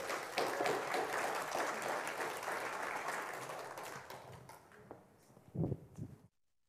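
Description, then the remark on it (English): An audience applauds as a speaker is invited forward to share, a dense patter of many hands clapping that holds strong for several seconds, then thins and fades, with a few low thumps and murmurs before it stops. “I'm a little nervous, so I appreciate the clapping”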